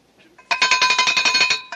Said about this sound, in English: For supper, I ring the bell.